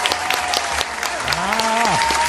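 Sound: applause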